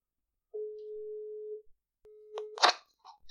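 A phone's ringing tone: one steady electronic beep lasting about a second, then a second tone cut short by a clattering click as the line is picked up. No one speaks.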